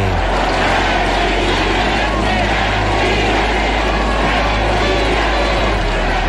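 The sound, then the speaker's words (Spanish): A huge crowd of about 130,000 attendees roars continuously, chanting "presidente, presidente" after the Dolores bell is rung, with many voices blending into a dense, loud wash of cheering and shouting over a low, steady rumble. “De pronto, otra oleada de gritos se escuchó. Los 130 mil asistentes coreaban, presidente, presidente.”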